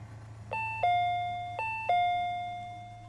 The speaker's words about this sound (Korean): 초인종이 울렸다.